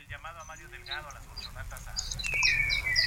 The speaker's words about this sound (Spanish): ¿Estás en la selva? donde andas? Que suenan unos pajaritos muy bonitos de fondo.